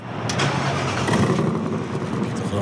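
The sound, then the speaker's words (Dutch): A car engine starts up and revs, settling into a loud, continuous mid-pitched rumble with a few brief surges over a couple of seconds. “Hier kun je eh, de buren lekker mee wakker maken, s morgens vroeg.”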